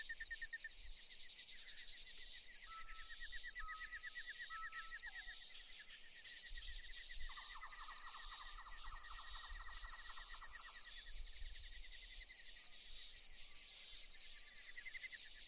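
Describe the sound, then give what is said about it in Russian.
A dense, shrill chorus of cicadas buzzes steadily throughout at a museum site, with rhythmic pulsing trills rising and fading over the constant drone; no voices, just the insects filling the air. “Так что давай найдем скамейку и немного отдохнем под стрекот цикад.”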